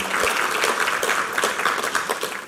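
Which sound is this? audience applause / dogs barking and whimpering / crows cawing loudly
audience applause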